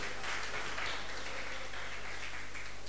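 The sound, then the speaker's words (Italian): An audience applauds the winners of a quiz as they go to collect a USB stick as their prize, a dense patter of many hands clapping that holds at an even level for a few seconds, with a low hum underneath and no talking. “Dai, vai, l'applauso”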